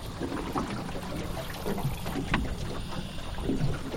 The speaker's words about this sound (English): She kills the engine, and we sit and listen a moment to the marsh.